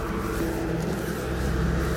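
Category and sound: vehicle, car driving past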